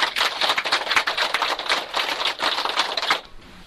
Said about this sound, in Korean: 참 잘하시고 박수 한번 부탁드립니다.